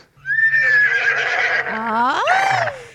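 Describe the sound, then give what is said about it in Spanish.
A single loud horse whinny lasting a few seconds: a high, quavering neigh that wobbles in pitch, then swoops upward and trails off, heard alone with no talking. “Y le dice, doctor, doctor, vengo a visitarlo porque mi marido, mi marido se cree caballo, se cree caballo todas las mañanas, se la pasa relinchando, trota todas las mañanas”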